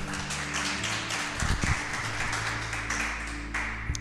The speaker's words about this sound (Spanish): ¿Cuánto le ponen un aplauso a Dios por eso?